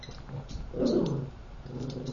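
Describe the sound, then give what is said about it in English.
A small female miniature schnauzer makes low, grumbling vocal noises, swelling into a louder rumbling murmur mid-way before trailing off into softer throaty sounds, with no one talking. “So, um, my dog decided to come in and say hi.”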